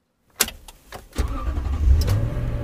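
A car engine cranks with a few sharp clicks, then turns over and catches into a steady, low rumble that keeps running to the end.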